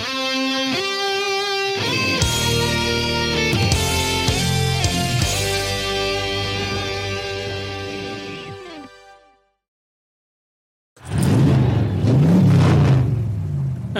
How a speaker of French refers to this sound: grondement sourd, le son des pneus qui stoppent net dans le gravier de la maison. Une portière qui claque.